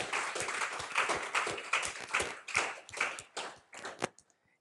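An audience applauds the worship band with dense, overlapping hand claps at a steady level, then the clapping thins out and stops, ending with a few scattered final claps.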